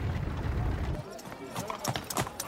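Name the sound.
horse hooves clip-clopping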